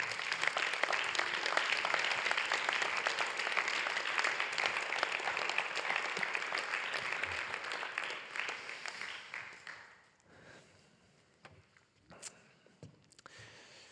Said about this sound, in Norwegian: og så må dere gi henne en applaus på veien.